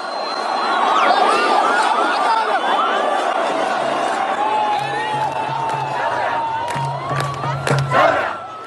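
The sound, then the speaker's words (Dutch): A large protest crowd of Sudanese in the streets of Khartoum, Sudan, demanding the departure of president Omar al-Bashir, roars and shouts continuously, many voices blending into a loud, dense din with rising calls throughout, and a siren-like tone wavering in the background. “En sinds december gaan duizenden, tienduizenden, honderdduizenden Soedanezen de straat op.”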